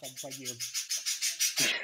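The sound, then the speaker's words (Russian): A parrot, one of the parents of a pet parrot named Pushok, lets out a rapid string of harsh, raspy squawks, about a dozen quick bursts, with lower throaty calls mixed in at the start and end. “Кажется, попугаю это не очень нравится.”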